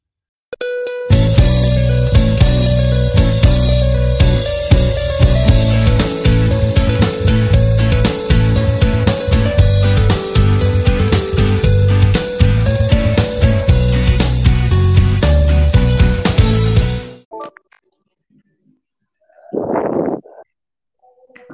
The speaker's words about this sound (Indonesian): Para pendengar, sebelum kita memulai interview kali ini, mari kita dengar tembang yang satu ini.